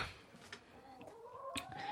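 Seven pet chickens, being let out into a garden, cluck and murmur softly, with short scattered calls and a few sharp transients over a quiet outdoor background.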